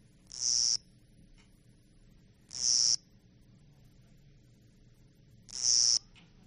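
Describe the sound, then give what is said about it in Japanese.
Three short bursts of a small cricket's high, buzzing chirp, evenly spaced about every two and a half seconds against a quiet low background hum, clear. The insect is a kogata-korogi, a cricket species a size smaller than others. “今の G はねあの、等間隔なんですね。小型コオロギって言いまして、ちょっと一回りちょっとちっちゃいというのが特徴で”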